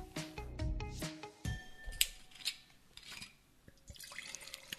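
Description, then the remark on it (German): Scheurebe wine pours into two glasses in a shop with bright glugging and splashing, the pitch rising as the liquid fills, followed by a few clinks and drips. Moderately loud, with no talking. “Wir haben eben über die Scheurebe gesprochen und nun befindet sich die Scheurebe hm. in zwei Gläsern vor uns”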